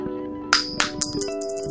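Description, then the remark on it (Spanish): A tossed coin lands with three quick metallic clinks, each leaving a bright, high-pitched ring that lingers and shimmers as it settles. No one speaks. “La moneda fue lanzada.”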